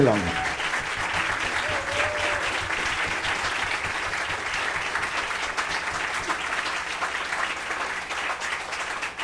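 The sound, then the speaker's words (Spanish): Sustained audience applause, a dense steady wash of clapping that holds at an even loudness for the full stretch, with faint cheering and voices mixed into the crowd, a final applause for the maestro and the tango group at the close of a Radio Universidad Nacional Autónoma de México program. “Un aplauso final para el maestro y para el grupo de Tango”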